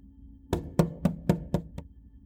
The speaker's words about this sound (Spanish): Los golpes en su puerta lo despertaron, haciéndolo saltar de la cama, con la mitad de las sábanas todavía sobre él.